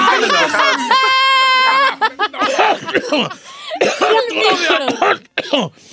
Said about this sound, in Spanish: Ay, me dio tos.